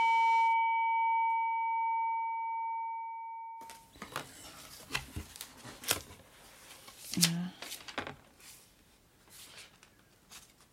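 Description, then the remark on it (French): After a few seconds of a steady electronic tone, paper rustles and crinkles as sheets of papers that had been sent to the speaker are handled, with irregular crisp bursts continuing to the end. “ça c'est des papiers qu'on nous avait envoyés”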